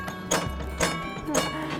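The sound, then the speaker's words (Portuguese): The horn of an old Portuguese tram, running on about 200 metres of collected track, sounds three times in a steady rhythm, each blast a sharp, bright, ringing burst that fades quickly, with a low hum underneath. It is the horn once sounded at badly parked cars. “Olha só como é que era a buzina, né? Quando tinha um carro mal estacionado.”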